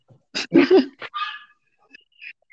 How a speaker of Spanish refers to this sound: Está ladrando el perro. No, y el perro cuando abre la puerta, ladra.